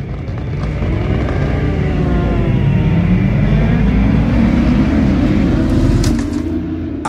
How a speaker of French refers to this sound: C'est con, mais c'est exactement ce que je me dis en montant sur ma moto pour prendre le départ.